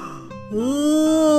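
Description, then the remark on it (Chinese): A dragon's big yawn: after a short breathy intake, a deep voiced groan swells and holds for about a second, sounding like a human voice imitating the yawn. “呃，不过呀，巨龙的哈欠可不是什么小哈欠，这可是一条龙的哈欠。”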